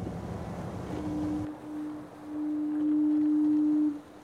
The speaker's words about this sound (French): Le bateau ralentit. Il est empêché par des blocs de plastique. Le groupe se trouve à moins d'un kilomètre des côtes.